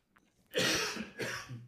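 Two harsh coughs in close succession, the first longer and rougher, the second shorter, heard close up with no talking.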